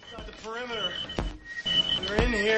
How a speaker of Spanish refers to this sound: Hay como un chasquido y a la vez el pitido. Y el pitido sube de tono y de intensidad a medida que se acerca algo. No te pueden avisar más, te están diciendo la distancia a la que está, hmm. te están diciendo incluso la cantidad.